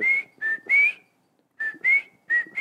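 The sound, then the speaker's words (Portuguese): A person whistles an imitation of a rufous-bellied thrush (sabiá) song: three clear phrases, a pause, then three more, each a sliding, warbling note, fairly loud with no talking. “E aí e ele tem um canto bonito, e cada sabiá tem um sotaque Como diferente. É que seria esse canto?”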